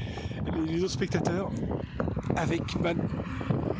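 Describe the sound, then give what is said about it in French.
A steady, low truck rumble runs underneath a man speaking, with a rough wind-like noise filling the background throughout. “Désolé pour le bruit de camion euh, en fond.”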